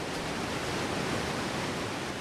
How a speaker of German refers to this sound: 373 Kubikmeter Wasser, wo pro Sekunde über eine Felsformation abdonnert.